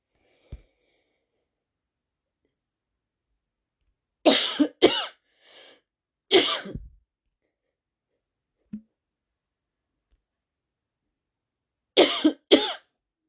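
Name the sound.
coughing fit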